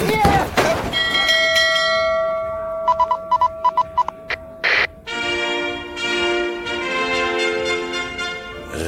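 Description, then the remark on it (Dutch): A large ship's bell is struck loudly, its heavy clang ringing on with long shimmering overtones, followed by a quick cluster of sharper strikes and another sustained, resonant peal. “Ja, als hij, op die, als hij die grote scheepsbel luidt.”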